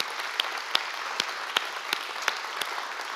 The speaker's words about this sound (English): This is just a fraction of the people who set their hand and uh, serve uh, all the time here at New Creation Church. So why don't we just give them a really big round of applause, every single person.